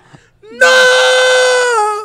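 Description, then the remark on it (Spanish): A voice lets out one loud, sustained, steady-pitched wail lasting over a second, imitating the blaring call of a street loudspeaker car, preceded by a brief low vocal slide. “no, pero es el grito del carro de perifoneo del debate.”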